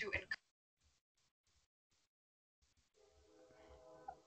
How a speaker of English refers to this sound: I don't know if you guys can hear, but there's a train in the background.